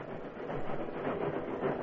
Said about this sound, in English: The train moved slowly to the summit of Backbreak Hill.